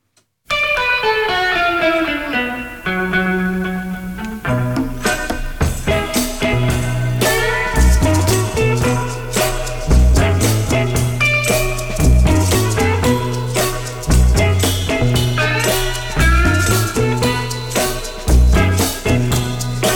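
A loud, up-close rock and roll song with a singer over twangy, effect-laden electric guitar, a steady thumping bass beat and driving rhythm throughout.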